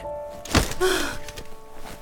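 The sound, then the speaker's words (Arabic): A single soft, heavy thud as a woman throws herself onto the chair in front of a desk, followed by a brief creak and rustle of the chair settling. There is no talking. “دخلت عليه بوجهها الشاحب وهي تحمل حقيبه للكمبيوتر المحمول في يدها ومن دون اي اذن اتجهت الى الكرسي امام مكتبه ورمت نفسها عليه”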